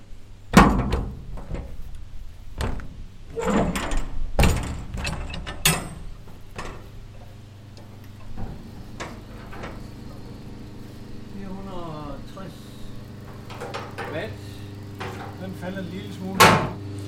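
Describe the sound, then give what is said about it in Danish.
The metal door of an old transmitter cabinet, about the size of a large telephone booth, being unlatched and opened: a series of sharp clanks and thunks, with rattling mechanical clicks and a scraping creak, then a final loud clunk. “men lad os nu se, når vi åbner.”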